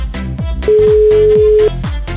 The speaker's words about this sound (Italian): Squilla, squilla, squilla, signori. Proviamo, eh.